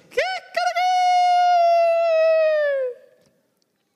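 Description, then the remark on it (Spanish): A rooster of the Galilee region crows once, loud: a couple of short clipped notes, then a long, strained, sustained call that holds steady for about two seconds before tailing off into silence. “Así que estoy casi seguro que cuando Pedro termina de decirle, sí Jesús, yo te amo, a un gallo de la zona de Galilea hace,”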